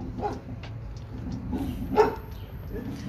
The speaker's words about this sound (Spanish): ¡Ay, perrito, perrito, perrito! Tenemos un nuevo amigo en el podcast.